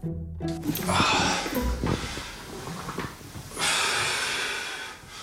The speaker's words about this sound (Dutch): Nu begin ik op stoom te komen, dat kan je horen, hè? Je doet nu, eh, steunend. doet nu rek- en strekoefeningen oefeningen tegen, tegen de stress veroorzaakt door de opnames.